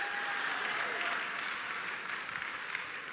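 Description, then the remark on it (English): Steady church audience applause of about ten seconds, a dense, continuous wash of many hands clapping at an even loudness for the whole stretch, with no voices standing out above it. “gives you this 10 second clap”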